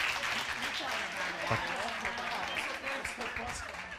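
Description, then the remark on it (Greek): A crowd applauds the speaker's friend and collaborator steadily, a dense wash of many hands clapping at an even loudness for several seconds, with faint voices murmuring underneath. “Μπορούμε να δώσουμε έτσι τώρα εδώ μεταξύ μα ένα χειροκρότημα στο φίλο μου και συνεργάτη μου”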